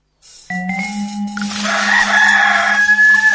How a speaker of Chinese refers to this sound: 那是象宝宝的叫声吗？不是，呵呵，那是公鸡。